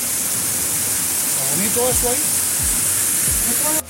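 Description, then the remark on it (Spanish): Steady rushing water pours continuously over a small dam, a broad hiss like a small cascade, with a man's voice talking briefly over it partway through. “Ah, ah, pero esa presa hay que limpiarla, mira, es una presa.”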